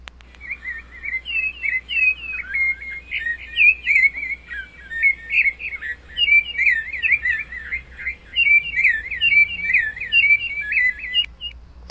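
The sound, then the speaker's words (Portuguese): A sabiá thrush sings a continuous run of melodious, warbling whistled phrases for the whole stretch, clear, over a faint low background hum, with no talking. “Quando acordei, eu ouvi este pássaro cantando. É um sabiá, um anúncio de que logo a primavera chegará.”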